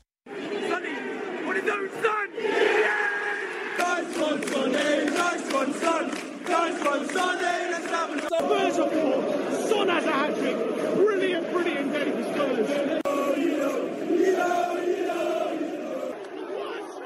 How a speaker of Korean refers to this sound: 뭐 응원하는 뭐 그 사람들 소리 같기는 한데요.